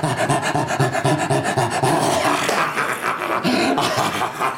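A dog in Los Angeles makes rough, raspy growling and snuffling noises, loud, in steady rhythmic bursts that continue throughout with no pauses or talking.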